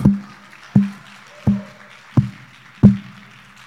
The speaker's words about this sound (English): Man, that was so good. I'm going to clap by myself.